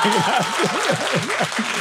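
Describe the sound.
Steady, dense applause with many hands clapping at once, fairly loud throughout, while voices rise and fall in pitch over the clapping.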